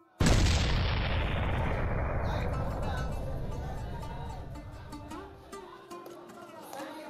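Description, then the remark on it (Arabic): A single loud cannon shot, the Ramadan cannon in Egypt fired from the palace of Abbas Pasha in the Abbasiya district, booms out, followed by a long, rumbling echo that slowly fades over several seconds as faint tonal sounds emerge underneath. “فالمدفع بقوا مدفعين في عهد الخديوي عباس حلمي الأول اللي هو حفيد محمد علي باشا وجه حكم مصر سنة 1853 أولا المدفع الموجود في القلعة من أيام محمد علي أما المدفع التاني بيتضرب من سرايا عباس باشا في منطقة العباسية”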